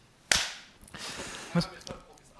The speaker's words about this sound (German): Wollen wir es dann einmal so machen, wie wir es im Podcast immer machen? Mhm. Ja. Wir können jetzt klatschen.